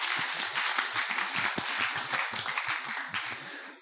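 A church audience breaks into applause for an eleven-year-old boy, a dense, steady patter of many hands clapping together for a few seconds at moderate volume, with no talking over it.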